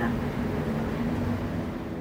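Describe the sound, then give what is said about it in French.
Steady low rumble and hum inside a moving, crowded metro train at rush hour, a continuous mechanical drone with a faint tonal whine, filling the space evenly; the passengers are silent, with no voices. “Après l'interview de Ginette, je suis rentrée chez moi directement en métro.”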